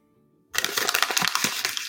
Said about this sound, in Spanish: Para las personas que nos están escuchando y no nos están viendo, tengo un folio eh, y he ido arrugando por cada palabra, o sea, por cada frase que han dicho